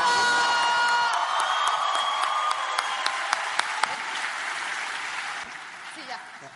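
An audience bursts into sustained applause with cheering and scattered whoops, a dense wash of clapping that holds steady, then gradually thins toward the end.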